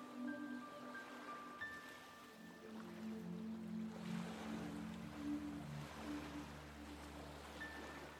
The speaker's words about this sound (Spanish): Descende hasta la orilla y observa cómo las olas que hoy están calmas se acercan con suavidad, formando diminutas ondulaciones en el borde del agua para luego retroceder lentamente y ser absorbidas por el reflujo del mar hacia adentro